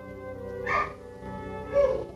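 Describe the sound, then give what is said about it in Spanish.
A dog barks twice, one bark a second or so after the other, at moderate volume over a steady low hum with no talking. “a estos, estos ladridos porque precisamente le dan sentido a esta lectura.”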